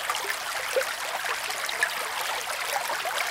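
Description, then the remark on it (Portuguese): Water rushing steadily along a river, a continuous bright gurgling and splashing with small bubbling accents, moderately loud, with no voices. “E a resposta correta é. A água a correr num rio.”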